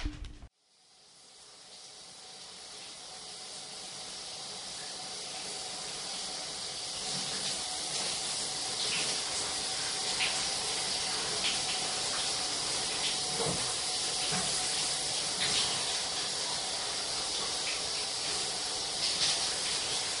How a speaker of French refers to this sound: À la douche maintenant.